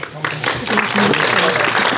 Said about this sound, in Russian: Я хочу, ну, во-первых, поблагодарить за помощь в организации вообще вот такой скоро премьеры и открытие, в том числе, кинотеатра, управляющей компанию «Лето». И они точно заслуживают ваших аплодисментов.